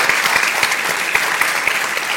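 An event audience applauds the sponsors Cirque du Soleil and GSK, clapping steadily and densely in a continuous wash of many hands with no pauses, loud and even throughout, with no voices over it.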